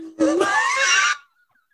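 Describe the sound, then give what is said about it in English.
A person imitates a wolf howl through cupped hands: one loud, breathy, rising wail lasting about a second, then cut off abruptly. “That's how you make a wolf sound.”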